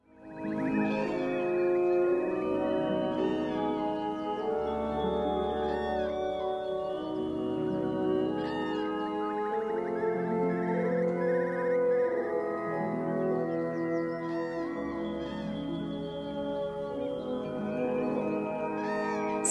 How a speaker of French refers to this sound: une œuvre pour orchestre auquel il ajoute des chants d'oiseaux enregistrés dans les marais du Grand Nord finlandais ou euh, près du cercle arctique, une œuvre que Rautavara a lui-même nommée Concerto pour oiseaux et orchestre.